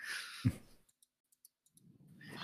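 A handful of soft, irregular keyboard clicks tap out in a quiet pause, bracketed by a breathy rush of noise and a dull thump at the start and a rising hiss at the end.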